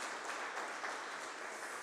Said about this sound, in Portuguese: E se você crê nisso, aplauda Jesus bem alto, gente.